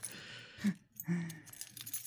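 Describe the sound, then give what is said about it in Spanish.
A bunch of keys with a small camera-accessory tool attached jingles and clinks on a keyring, two short bursts of metallic rattling separated by a brief pause, with no voices. “Este es un llavero. Se lo pones a cualquier llave.”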